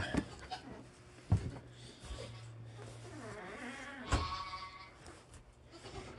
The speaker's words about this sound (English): Yes, some lack of recording anything else, we thought we would record Crazy Goats. Hello, Crazy Goats.